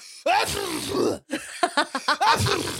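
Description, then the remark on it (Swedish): A voice imitates a man's loud sneeze, "Ah, jo!", with a forceful, drawn-out vocal burst followed by a series of short, sharp exaggerated bursts, fairly loud. “Vad är det för fel på killars nysningar? Det är alltid så.”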